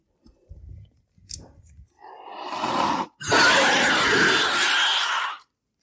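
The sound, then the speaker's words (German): Low guttural clicks and grunts give way to a harsh, hissing alien creature scream in two loud bursts, the second long and shrieking before cutting off: the scream of a Xenomorph from the video game Alien Isolation, set in the Alien universe. “Das ist ähm, aus einem relativ neuen Spiel, das nennt sich Alien Isolation, das im Alien-Universum spielt und das ist der Schrei eines Xenomorphs”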